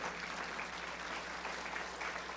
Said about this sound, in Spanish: Apláudele fuerte si estás de acuerdo.